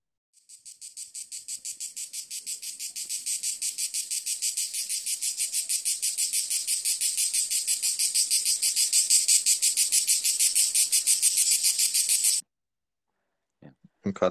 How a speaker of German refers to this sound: du hörst am Abend diese scheiß Grillen oder was sind das für Dinger?